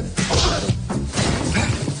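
A few sharp, loud slaps land in quick succession, each a broad smacking hit with a brief whooshing edge, close up and with no talking.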